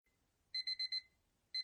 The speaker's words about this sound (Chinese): 床头柜的电子闹钟在时间变成五点的时候，响起了一阵尖锐的响声。